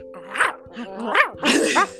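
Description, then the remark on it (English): A voice playfully imitates a lion's roar, producing a few rising, growly bursts in quick succession, moderately loud. “Roar, roar, roar, roar”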